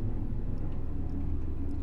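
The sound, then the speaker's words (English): A deep, steady engine drone rumbles continuously as many planes that look like World War II propeller fighter planes fly overhead, shaking the surroundings; heavy in the low end and unbroken throughout, with no voices. “They look like fighter, like World War II fighter planes flying overhead.”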